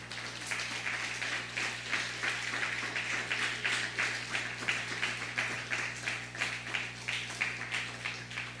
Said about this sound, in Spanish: Dele un fuerte aplauso al Eterno.